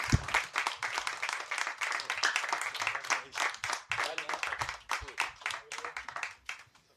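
A live audience breaks into sustained applause, dense clapping from many hands filling the room, steady and fairly loud before tapering off near the end.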